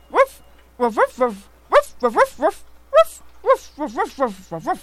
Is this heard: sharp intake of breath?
no